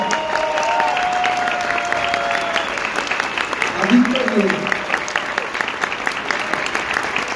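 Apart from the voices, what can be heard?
audience applause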